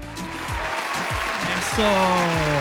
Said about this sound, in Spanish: Déjame poner unos aplausitos aquí, un aplauso, unos aplausos.